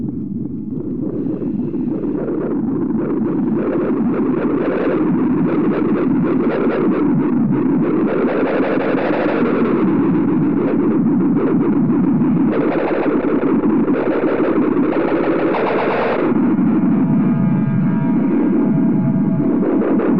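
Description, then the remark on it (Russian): Early Berlin-period electronic music made with proto-synthesizers, oscillators and noise machines: a dense, distorted wall of buzzing, warbling tones over a steady low drone, swelling and shifting continuously and loudly for the whole stretch, with no voices. “очень много использовали вот эти вот протосинтезаторы, такие вот осцилляторы и прочие такие вот шумовые машины.”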